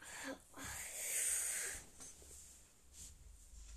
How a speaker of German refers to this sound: Ähm oh mein Gott, muss kurz niesen.